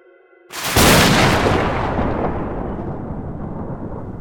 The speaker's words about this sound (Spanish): En esos momentos, una explosión resonó en todo el hospital.